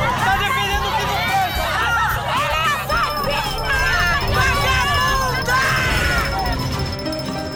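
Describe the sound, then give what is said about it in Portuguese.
A loud, unruly crowd roars continuously, with many overlapping voices shouting and yelling at once in a dense, chaotic din that never lets up. “Uma multidão fora de controle.”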